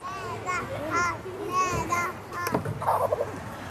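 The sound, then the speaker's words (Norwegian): Several young children play freely in a kindergarten in Tromsø, Norway, chattering and calling out in high voices, their overlapping shouts and squeals over a busy background. “Ungene leker fritt i Bjerkaker barnehage i Tromsø.”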